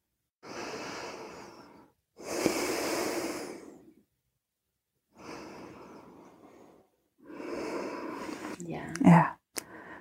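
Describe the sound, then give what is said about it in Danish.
Slow, deep breaths drawn in and let out in long, airy waves, about four breaths of roughly two seconds each, fairly loud, separated by brief pauses, taken with eyes closed to relax the body during a guided breathing exercise. “Tager tre dybe, lange vejrtrækninger og slapper fuldstændig af i vores krop.”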